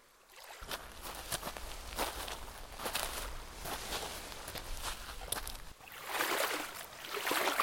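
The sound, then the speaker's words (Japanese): Footsteps thud as two people board a wooden boat floating at the water's edge, followed by the rhythmic creak and splash of oars as one of them rows on calm water with almost no waves, with a steady low rumble underneath throughout. “2人は波打ち際に浮かんでいたボートに乗り込みリコが糸を手に持ち高谷はオールをこぎ始めました”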